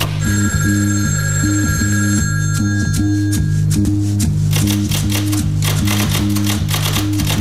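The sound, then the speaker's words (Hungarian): A telephone bell rings over a steady, rhythmic low musical pattern, with a busy clattering texture building in the background; fairly loud, with no voices. “Csengett a telefon.”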